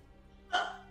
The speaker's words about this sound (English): Gesundheit.